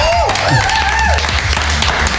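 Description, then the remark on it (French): An audience applauds at the close of a rock radio show with acoustic live performances: a steady, dense patter of many hands clapping throughout, with a few rising and falling whistle-like tones and crowd voices mixed in early on. “Allez, bon week-end et on terminera en applaudissant et en remerciant”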